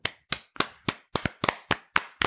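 An audience at the close of a storytelling talk gives about a dozen sharp hand claps in an uneven rhythm, some landing in quick pairs, each a crisp slap with a short decay, fairly loud with no talking.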